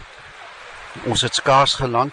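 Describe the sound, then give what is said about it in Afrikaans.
Steady rain patters on a banana-leaf roof beside a stream in Borneo as a soft, continuous hiss, heard alone for a second before a person starts talking over it. “Soos julle kan hoor, die klank van reën op 'n pisangblaar dak, donne weer langs 'n stroom.”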